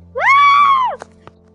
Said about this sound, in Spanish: Ellos escucharon ese grito y se asustaron más.